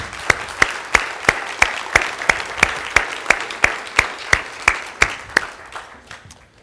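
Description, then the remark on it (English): A standing audience applauds, giving a big hand to the Lord, many hands clapping in a steady, quick unison rhythm over a dense bed of scattered claps, then tapering off near the end. “Let's give a big hand to the Lord.”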